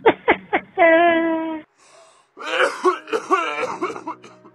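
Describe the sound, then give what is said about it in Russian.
An old woman coughs three times in quick succession, then makes a drawn-out, raspy throat-clearing sound, followed after a short pause by a run of choppy, laugh-like vocal bursts, all fairly loud. “Теперь и кашляет, и смеется.”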